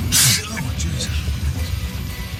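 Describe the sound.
A single sharp, breathy sneeze bursts out loudly at the very start, spraying snot onto a steering wheel, followed by laughter and a man's voice speaking over low background rumble.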